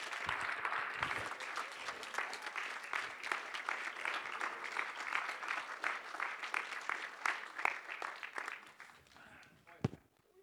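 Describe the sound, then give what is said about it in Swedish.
A crowd claps steadily for about nine seconds to welcome a man, a dense, lively wash of applause that holds strong before thinning out and fading, with one sharp clap near the end. “Vi kan ge honom en stor varm applåd och hälsa honom välkomna.”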